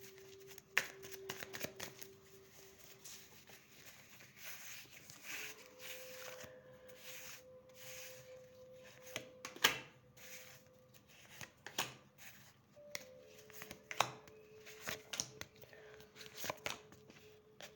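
Tarot cards are shuffled for several seconds, a steady rustle of riffling and sliding cards with occasional sharper snaps and taps, and no one talking.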